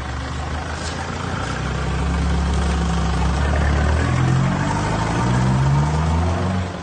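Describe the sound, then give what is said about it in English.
A car engine rumbles steadily up close, its low drone swelling slightly and rising in pitch partway through as if revving gently, with no voices present. “the saga that surrounded her driving, literally driving over the top of a car of a freedom fighter.”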